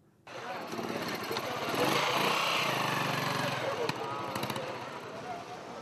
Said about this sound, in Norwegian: Det er litt eh, trafikk og litt mennesker ute i eh, sentrum av eh, Juba. Men det er mye stillere enn det pleier å være, sier alle de som er her.